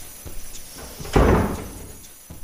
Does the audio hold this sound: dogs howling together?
no